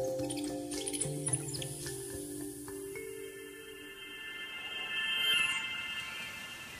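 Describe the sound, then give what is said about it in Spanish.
Steady rushing of the Huejar River in Colombia flows throughout, a continuous moderate wash with faint rustling of tree leaves in the river breeze, while sustained humming tones drift over it in the first half. No one speaks. “Las hojas de los árboles bailan al ritmo de la brisa del río Huejar.”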